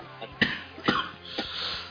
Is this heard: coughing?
yes